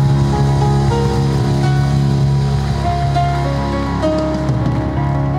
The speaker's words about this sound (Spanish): Dale un fuerte aplauso ahí, en tu asiento al Señor.